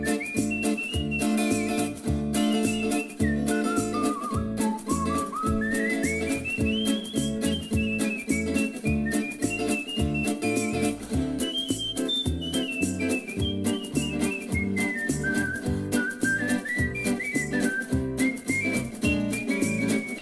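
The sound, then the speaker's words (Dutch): A person whistles a bright, wandering melody for the full stretch, the pure tone gliding up and down over a steady, bouncy instrumental backing with a thumping bass rhythm. “Probeer dan eens te fluiten, want dat doet je zeker goed.”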